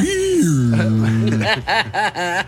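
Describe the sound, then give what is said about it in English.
On the morning show Acadiana's Morning News, a man's voice imitates a donkey bray: a long, sliding low tone giving way to a run of rhythmic, strained hee-haw pulses, loud, with no other sound. “Making the sound of a donkey”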